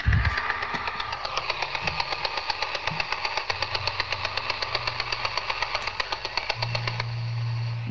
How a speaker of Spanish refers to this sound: Y no es otra cosa que el robot que barre el suelo, el puñetero rumba. Parece el helicóptero del equipo A, pero no. Es el rumba.